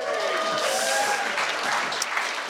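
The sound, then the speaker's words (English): An audience breaks into steady applause mixed with cheering and a few raised voices, cheering a remark hoping for a Jeremy Corbyn Labour government; a dense continuous wash of clapping that stays loud throughout. “And I'm glad somebody clapped and cheered that bit.”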